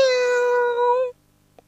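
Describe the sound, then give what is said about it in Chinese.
A single drawn-out cat meow lasting about a second, high-pitched and steady with a bright, clear tone, then silence broken only by a faint click. “于是孩子们东张西望的拼命到处找，终于发现了一只猫。喵！”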